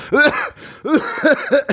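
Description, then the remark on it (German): A loud, deliberate string of coughs, four or five voiced, throaty bursts in quick succession, with no other sounds around them, like someone faking a cough on purpose. “hätte ich, glaube ich, noch lustiger gefunden, wenn du einfach sehr laut gehustet hättest, um die Situation zu entpeinlichen.”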